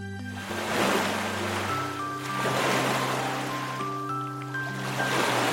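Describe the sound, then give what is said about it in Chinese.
Ocean waves roll and wash ashore in three broad, hissing surges, each swelling and receding, with soft sustained music tones playing steadily underneath and no voices. “呀，又来到了大海边，浪花唱起了欢乐的歌声。”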